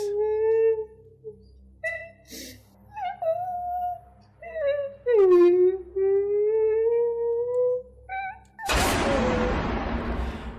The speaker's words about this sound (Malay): Tiba-tiba kami terdengar. Kita berdua dengar dengan jelas ya suara budak kecil menangis.